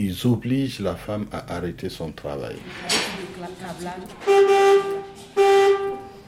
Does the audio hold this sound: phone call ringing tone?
no